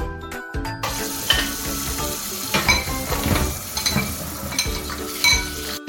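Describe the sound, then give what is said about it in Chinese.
Dishes being washed in a kitchen sink full of soap bubbles: a steady wash of running, splashing water with scattered clinks and knocks of plates and utensils bumping together. No one speaks. “兄妹两人在洗碗槽里边玩泡泡，边洗着碗。”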